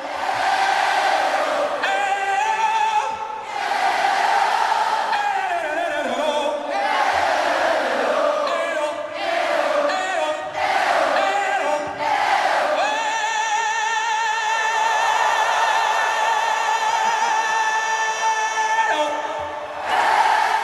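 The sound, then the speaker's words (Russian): An audience of many thousands in the final concert scene of a singer's biopic roars and cheers in a dense, continuous wall of voices with swelling surges, then settles into long, sustained collective yells that hold steady notes toward the end. “И вот эта финальная концертная сцена перед многотысячной аудиторией – это настоящая религия.”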